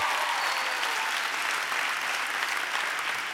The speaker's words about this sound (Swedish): Ska vi ge det här otroliga lovsångsteamet också en stor varm applåd? Fantastiskt.